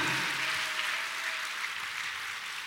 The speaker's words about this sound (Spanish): Dele un fuerte aplauso al Señor, amado hermano.